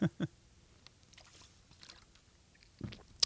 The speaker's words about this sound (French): Puis euh, là, je me reprends un autre gorgée d'eau, puis je rechange de sujet après ça.